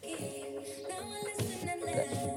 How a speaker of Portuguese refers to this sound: Ganda som, ganda vibe. Uh! Este é o tipo de som que eu ouço, música pop.